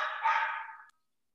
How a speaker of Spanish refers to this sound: Hasta el perro se enojó, la neta.